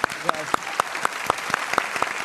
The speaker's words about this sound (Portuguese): Pode aplaudir.